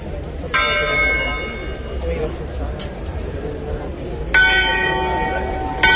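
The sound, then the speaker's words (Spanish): Church bells ring out during a procession in two loud, resonant peals a few seconds apart, announcing that the image of the Virgen Chiquita is returning to its brotherhood house; each tone lingers and hums over a steady background of crowd murmur and voices. “Y empiezan a sonar las campanas que anuncian que la blanca resplandeciente imagen de nuestra Virgen Chiquita va de regreso a su casa de hermandad.”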